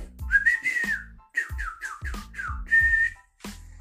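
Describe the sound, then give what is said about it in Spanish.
A person whistles a loud, particular signal call used to call between people: a long rising-and-falling note, a quick run of short downward-sliding chirps, then a steady held tone, with no talking. “Espero que haya sonado bien el silbido.”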